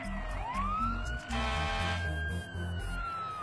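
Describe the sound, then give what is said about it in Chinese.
Sirens of ambulances, police cars and fire engines arriving at a bus crash in Chongqing, where the bus fell off a bridge, wail steadily: a rising, sustained tone sweeping upward and holding, with a second siren pattern briefly layered in the middle over a low rumble of traffic. “随后，救护车、警察和消防队也陆续赶到。”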